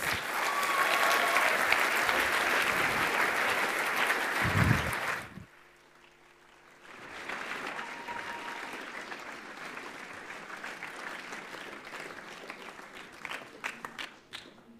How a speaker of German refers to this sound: Und geben ihnen einen fetten Applaus